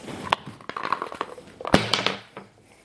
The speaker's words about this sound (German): Gut, dann würfel ein D20.